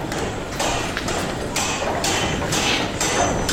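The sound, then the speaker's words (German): At a mint, men strike coins with hammers in a steady series of sharp metallic blows, roughly two per second, ringing over a constant background clatter. No one speaks. “Diese feinen Herren hier schlagen unsere Münzen.”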